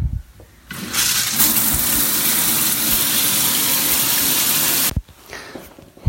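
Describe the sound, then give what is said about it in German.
Water from a shower rushes on steadily for about four seconds, a loud, broad hiss, then cuts off abruptly, leaving quiet with a few small clatters. “Ich für meinen Teil, ich gehe jetzt duschen und äh, sag bis später.”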